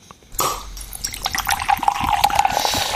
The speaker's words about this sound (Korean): 이 소리 들, 들으셨어요? 오늘 보물소리입니다. 네. 이 소리를 일부에 나가는 어떤 노래 속에 숨겨놓을 거예요. 잘 기억해 두세요. 이게 사이다 뚜껑 뻥 따는 소리예요.